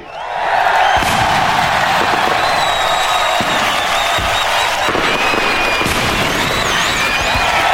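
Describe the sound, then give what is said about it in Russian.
Heavy booms from an artillery salute in Leningrad on 27 January, 24 salvos from 324 guns for the full liberation of Leningrad from the blockade, go off every second or so, loud and echoing, over a large crowd that cheers and shouts continuously throughout, with occasional whistles rising above the din. “победы и в честь полного освобождения Ленинграда от вражеской блокады сегодня, 27 января, в 20 часов, город Ленина салютует доблестным войскам Ленинградского фронта 24 артиллерийскими залпами из 324 орудий.”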